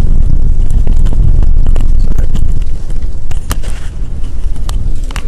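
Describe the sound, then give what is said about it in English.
Strong wind blasts into a microphone worn on the speaker's body, producing a loud, continuous low roaring rumble with scattered crackles and pops, easing slightly partway through. No one speaks. “I've got a I've got a hurricane going on here.”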